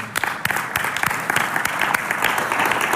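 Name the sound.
audience applause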